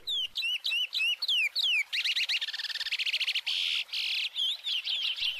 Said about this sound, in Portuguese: Ficou devendo os passarinhos, né? Não rolou. Beleza. Mas tudo bem, eu vou pagar essa dívida para você. Vou botar aqui um passarinho fake. Peraí.